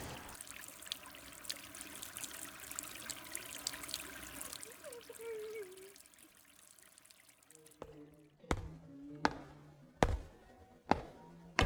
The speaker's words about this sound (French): Il arrose les plantes.